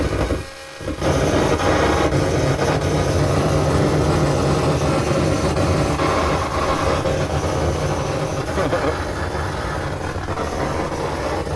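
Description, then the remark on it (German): A steady, loud electrical buzz with a rough, rumbling texture: the flickering light of a projector turned into sound through a solar cell held in front of it. It cuts out briefly near the start, then drones on without pause. “Ich, ich halte das jetzt vor den Beamer. Man hört dann das flackernde Licht, oder?”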